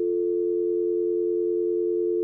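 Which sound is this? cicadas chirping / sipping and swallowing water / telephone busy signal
telephone busy signal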